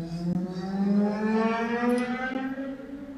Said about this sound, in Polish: Motocykl.